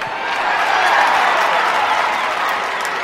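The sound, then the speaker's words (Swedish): Steady applause fills the whole stretch, a dense wash of many hands clapping at an even level, with no voices rising above it. “En liten applåd!”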